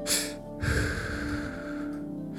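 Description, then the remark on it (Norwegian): An audible deep breath, taken during a relaxation exercise: a sharp airy intake followed by a longer, steady whooshing exhale, heard alone without any talking. “Og du puster dypt to-tre ganger.”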